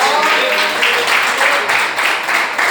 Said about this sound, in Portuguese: E as palmas que adorem e louvam ao Senhor Jesus nessa noite.